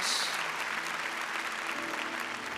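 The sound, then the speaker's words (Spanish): An audience applauds the Lord steadily, a dense wash of many hands clapping together at moderate volume, sustained throughout without a break and with no voices standing out. “Denle un fuerte aplauso a nuestro Señor.”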